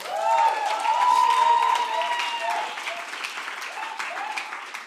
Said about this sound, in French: Est-ce qu'on peut applaudir